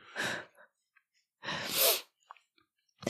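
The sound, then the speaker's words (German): Two sharp, breathy nose sniffs with no talking: a short one first, then a longer, louder one about a second later, followed by a few faint small clicks. “oh, sorry, ich habe gerade mit der Nase geschnieft, gell?”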